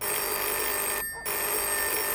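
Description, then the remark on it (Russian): A telephone bell rings loudly and continuously, with a brief pause in the middle before the bright metallic ringing resumes. “Внезапно звонит любимый и просит, чтобы ты срочно вернулась.”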